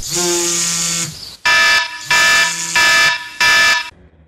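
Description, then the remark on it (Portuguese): An alarm clock blares a harsh, buzzing electronic tone: one long blast followed by four shorter, evenly spaced bursts, loud with no voices. “Talvez você seja mais um entre os que negociam minutos a mais com o despertador.”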